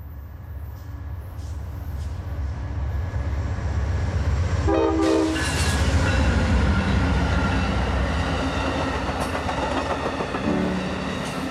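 An Amtrak train rolls along with a steady, heavy rumble and rattle, and about halfway through a short, bright horn blast sounds over the noise, with a fainter tone near the end.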